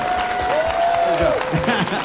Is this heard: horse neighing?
no